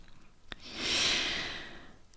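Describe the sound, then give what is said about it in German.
A dog lying down gives a single soft, airy breath like a light snore, rising and fading over about a second, with a faint click just before it and no talking. “Mein Hund, äh, ja, liegt hier äh, vor mir und schnarcht ein bisschen.”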